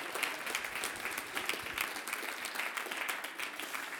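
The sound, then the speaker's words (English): A church crowd applauds the worship team steadily, a dense, even wash of many hands clapping at once with no pauses, moderately loud throughout and no voices standing out. “Uh, those guys really, yeah, you can you can applaud them, yeah.”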